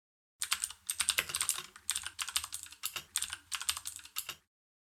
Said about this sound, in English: Sound familiar? That's the sound of the standard job search. All those little keystrokes make up quite the melody. The tap, tap, tap, far too many of us have grown accustomed to during the past few months.